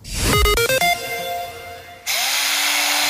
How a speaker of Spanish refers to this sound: Que el taladro no te intimide.